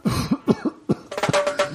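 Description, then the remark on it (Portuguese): A loud fit of coughing from someone laughing while taking a hit of marijuana: several harsh bursts in quick succession, then a denser, raspy run of hacking with a strained, wheezy edge toward the end. “É porque na hora, na hora que você falou, eu tava dando uma bola e o meu pulmão rachou do meio aqui de tanto rir. e tossir.”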